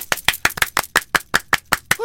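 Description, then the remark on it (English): One person claps a quick, steady run of about eleven sharp hand claps, each crisp and even, to welcome a guest who is an editor, before a voice begins speaking at the very end. “I don't really have the budget yet for applause, so.”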